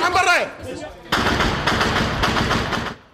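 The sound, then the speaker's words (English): A voice calls out briefly, then loud rapid automatic gunfire bursts in and continues as a dense, sustained rattle of shots for a few seconds before cutting off, as every weapon within reach fires at a suicide car bomber trying to break through to a building. “Gunfire erupted.”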